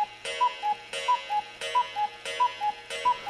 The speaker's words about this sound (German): Vielen lieben Dank für diese super Kuckucksuhr.